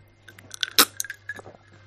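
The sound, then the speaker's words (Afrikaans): Quiet mouth sounds of someone taking a sip of whisky: soft wet smacks, a sharp click in the middle, then small swallowing noises over a low steady hum, with no talking. “Maar waar kan ek net 'n slukkie whisky vat asseblief?”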